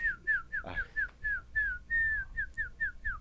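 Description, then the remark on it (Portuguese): A person whistles a rapid series of about a dozen short, falling chirps in a steady rhythm, imitating a songbird's call, clear with no talking. “O pássaro tem várias cantigas, inclusive, né?”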